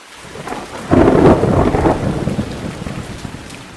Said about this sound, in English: In one corner of the world lies a tropical rainforest where the water pouring down from the sky endlessly for the whole day or night.